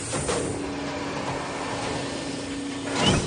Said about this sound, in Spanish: El doctor entra completamente extrañado a una sala hexagonal con varias puertas redondas y una rejilla circular en el techo. La puerta se cierra tras él, quedando solo en la sala.